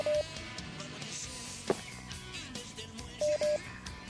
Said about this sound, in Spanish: Siento, siento un pitido, pero no escucho que haya alguien del otro lado.